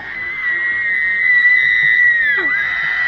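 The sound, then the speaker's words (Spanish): A single loud, piercing high-pitched scream held steadily for over two seconds, then sliding downward in pitch as it breaks off, over a low rumbling background. “Prácticamente un alarido.”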